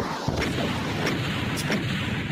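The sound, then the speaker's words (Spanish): A video game monster's suffering sound effect: a loud, harsh, gritty roar that holds steady for a couple of seconds, broken by a few sharp crackling bursts, with no talking. “Claro, el, monstruo ahí sufriendo.”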